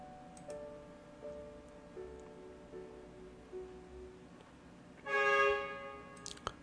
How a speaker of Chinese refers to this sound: 天哪，怎么现在还有汽车喇叭的声音啊？不知道你们听到没有？ 这个点儿了，都已经是凌晨啊零点三十分了，还有汽车的喇叭